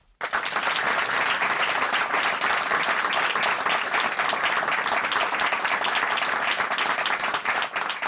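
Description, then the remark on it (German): A crowd bursts into sustained applause for psychiatrist and psychoanalyst Hans-Joachim Maas, dense and loud, holding steady for about eight seconds with many overlapping claps before easing slightly at the end. “Und ich möchte Sie hier bitten, dass Sie einen Riesenapplaus abgeben für Hans-Joachim Maas.”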